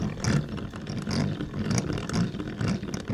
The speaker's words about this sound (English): This is like the reverse in your car. If you had a stethoscope on the transmission of your car, you might hear these noises.